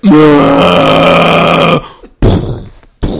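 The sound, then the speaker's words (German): A voice imitates a Jurassic Park dinosaur's growl: a loud, low, rasping roar held for nearly two seconds, then two shorter guttural bursts trailing off. “Weißt also, du, du läufst mit deinem Jack Russell dort den Waldweg entlang und plötzlich macht's vor dir.”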